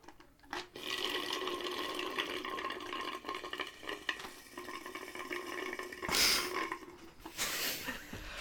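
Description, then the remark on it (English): Water and ice pour in a steady stream into a container for several seconds, the pitch rising as it fills, with a couple of brief brighter splashes or clinks near the end. No one speaks. “I have ice and water. I can combine them.”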